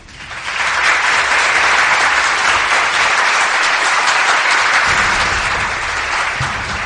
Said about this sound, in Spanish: Entonces, queridos amigos, este súper aplauso para nuestro Parlamento.